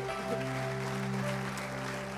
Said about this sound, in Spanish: Yo te doy gracias por la vida que hoy son restauradas en Cristo Jesús y alguien dele un aplauso fuerte a Él una vez más.